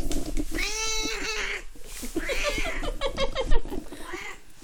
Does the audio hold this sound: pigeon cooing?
no